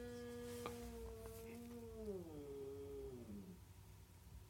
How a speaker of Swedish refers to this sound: Oj. Är det en katt utanför nu? Ja. Pratar de med varandra? Ja.